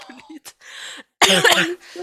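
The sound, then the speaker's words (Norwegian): A harsh cough from a person who is sick bursts out loud after a few short vocal sounds, followed by a brief pause and a softer breathy noise at the end. “så hvis jeg driver og hoster, så er det bare fordi jeg er sick”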